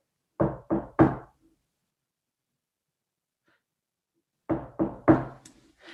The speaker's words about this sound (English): I open the I open the uh, glass door and I go up to her apartment. It's a walk up, and I knock on the door.